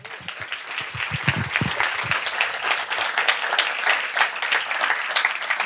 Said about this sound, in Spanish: Como habéis visto en la charla anterior, tenemos público. Un aplauso para público, por favor.